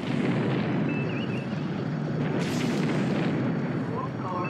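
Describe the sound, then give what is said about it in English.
Incoming weapons fire and explosions hitting the TOS Enterprise starship in a game: a loud, continuous roaring rumble with a sharper blast about halfway through, and thin electronic beeps and warbling tones cutting over the din. “Incoming fire.”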